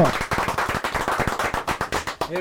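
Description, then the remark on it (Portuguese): An applause sound effect on a radio programme: many hands clapping in a fast, crackling, irregular patter that holds steady for a couple of seconds before breaking off, with a faint vocal sound at the very end. “Márcio do Santo, do Santo Inácio, a salva de palmas.”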